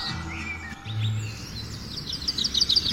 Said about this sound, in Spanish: Y los pajaritos. sí, güey, siguen los pajaritos. De Ay, que sigan más los pájaros que la rola, güey.